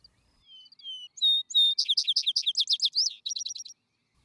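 A small songbird sings a bright, high-pitched phrase of thin whistles that break into rapid trilled notes and a quick run of repeated chirps, heard clearly and alone in quiet open air.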